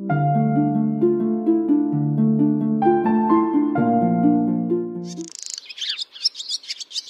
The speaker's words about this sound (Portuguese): Foi quando ela ouviu um canto lindo. Piu, piu, piu, piu, piu. Olá, seu passarinho, bom dia.